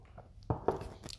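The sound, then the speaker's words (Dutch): A quick sip of a drink: two short, soft wet mouth and swallow clicks, with no talking. “Even een slokje drinken hoor.”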